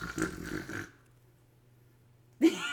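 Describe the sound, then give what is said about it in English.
A person imitates a loud, harsh, hard snore with one raspy, rattling breath, followed by a quiet low hum and the start of another vocal burst at the end. “light snore, you hard snore. Yours isn't like a cute like no”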